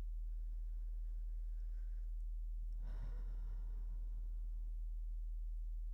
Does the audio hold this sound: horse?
no